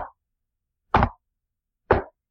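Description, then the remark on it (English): Three heavy, hollow knocks on a tree land about a second apart, each a loud thud with a short tail, separated by silence, almost like banging on wood. “keeps continuing on every side of the tree, just almost like banging now.”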